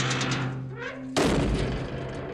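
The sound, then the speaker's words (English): A female guard slams a heavy metal prison cell door shut with one loud bang that rings out into a lingering echo, breaking a low, steady hum of ambience. “A female guard pointed to a pile of blankets before she slammed the metal door behind them.”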